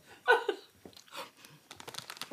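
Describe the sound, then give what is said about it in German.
A snack bag crinkles in quick, scratchy bursts while someone eats from it, irregular rustling and crackling that grows busier toward the end, after a short giggle at the start. About ten pieces have already been eaten and the bag is nearly empty. “Ich habe jetzt schon zehn Stück gegessen. Die Tüte ist gleich leer.”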